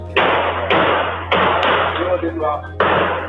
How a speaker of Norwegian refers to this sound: Then the sound of five gunshots are heard. One of the shots hit the journalist in the head. The Dutch crime reporter Peter R. de Vries has died. He had been shot in Amsterdam last week.